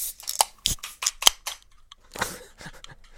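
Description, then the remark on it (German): A can of prosecco being opened for a toast: a run of sharp metallic clicks and scrapes at the tab, then a brief fizzy hiss and a few more small clicks. “Wer es nicht kennt, ist Prosecco aus der Dose.”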